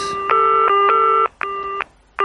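An electronic telephone ringing before the Utopías voicemail greeting: three loud, steady buzzing tone bursts with short gaps between them, the last one cut off. No one speaks.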